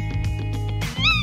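A tawny owl calls with a shrill, wavering cry that ends in a sharp, rising and falling screech. It is loud, with no voices.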